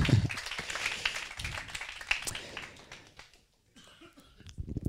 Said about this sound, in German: Vielen Dank euch fünf. Lasst uns den anderen Applaus geben.